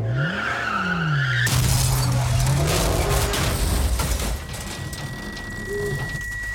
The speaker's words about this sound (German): Die dampfende Motorhaube wird durch einen dicken Eichenstamm durchdrungen.